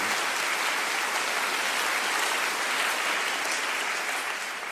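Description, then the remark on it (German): During a sermon, a large crowd applauds Jesus, clapping steadily for the whole stretch, a dense, even wash of applause that holds loud throughout and eases off slightly at the end, with no one speaking. “Können wir Jesus mal einen mächtigen Applaus geben für alle, die diesen Schritt gehen.”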